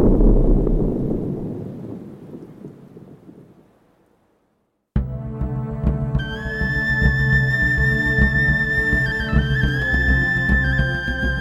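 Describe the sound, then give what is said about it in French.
A deep, rolling avalanche rumble fills the opening seconds, loud at first and then fading away, followed by a brief silence before sustained tonal music begins. “Le bruit des avalanches se mêle au silence constant.”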